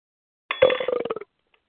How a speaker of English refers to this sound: Someone's burping. Not me.